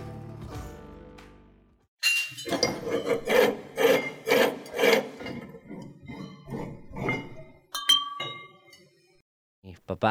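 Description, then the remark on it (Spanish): Glass being polished and cut by a glass artisan: repeated rhythmic rasping and rubbing strokes, followed by a few bright clinks and ringing taps near the end. “Entonces yo siempre trabajé puliendo vidrio, cortando vidrio, armando collares y vendiendo con mi mamá.”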